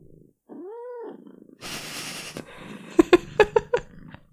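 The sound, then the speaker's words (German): A cat gives a short rising-and-falling meow, followed by a breathy hiss and then a quick series of five sharp, chirping yowls, fairly loud with no talking. “Das ist Katzen-ASMR, das mögen Menschen.”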